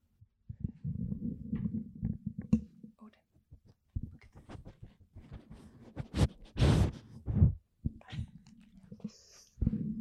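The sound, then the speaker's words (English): A dog snuffles right up against the microphone, with quick breathy sniffs and a few louder bursts of air amid low rumbling handling noise. “I'm gonna see if he's gonna sniff the mic for everybody.”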